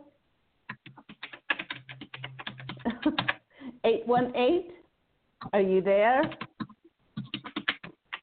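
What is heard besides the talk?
typing on a keyboard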